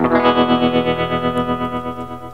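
Opening of a 1950s pop song: a shimmering electric guitar chord rings out with a steady, wavering tremolo pulse, loud and close, with no vocals yet.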